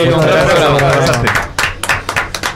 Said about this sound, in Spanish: Muchas gracias, por un, aplauso.